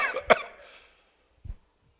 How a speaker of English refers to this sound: Got to the church and started coughing. What's going on? I said, oh, I'm going through deliverance.